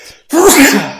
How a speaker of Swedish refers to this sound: Prosit Ursäkta Ja oh. uh. Nu känner ni igen mig Den var det tryck i Ja, ljudvågorna här på inspelningen. Nästan så det stänkte snor hela vägen hit.